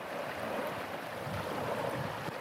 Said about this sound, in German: Wir treffen den 67-Jährigen dort, wo er den Großteil seines Lebens verbracht hat, am Meer heute plätschert die Ostsee an der Küste von Schleswig-Holstein ruhig vor sich hin.